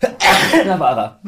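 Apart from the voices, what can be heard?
sneeze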